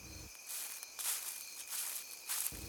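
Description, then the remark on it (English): Soft, rhythmic crunching footsteps through dry leaves and brush in woods, about one every half second, over a steady high drone of insects in an otherwise quiet outdoor setting. “Sorry, I thought I heard footsteps.”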